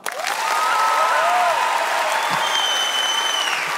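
An audience claps to show they prefer dogs to cats, a dense, even wash of applause holding at full strength throughout, with a few whistles and whoops rising above it.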